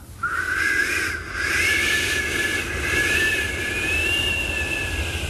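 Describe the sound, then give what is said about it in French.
A cold north wind, the bise of Franche-Comté, blowing hard: a steady, loud rushing roar with a thin, high whistle that wavers and rises slightly in pitch, continuing unbroken for about five seconds with no voices. “Alors attends, c'est le vent du nord ou c'est la bise c'est la bise, la bise franc-comtoise qui te gèle.”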